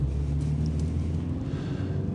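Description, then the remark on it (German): Steady low rumble and drone of a car interior while driving to work, mostly on country roads, a constant engine and road hum filling the background with no one talking. “Ich sitze im Auto auf dem Weg zur Arbeit.”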